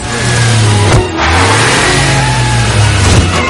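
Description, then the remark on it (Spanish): The inspector's car engine revs loudly and steadily, its pitch rising and dipping as the car reverses with rats climbing onto its roof, with a brief drop in the engine note about a third of the way through. No one speaks. “Las ratas suben al techo del coche que se va a marcha atrás.”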